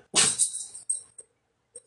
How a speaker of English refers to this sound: Don't sneeze on me. See, this is what happens.